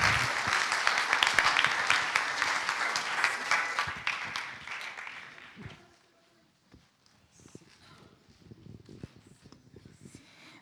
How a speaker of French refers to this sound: Alors, euh, on applaudit encore une fois les jeunes écrivains.